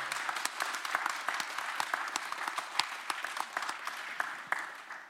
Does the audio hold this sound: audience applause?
yes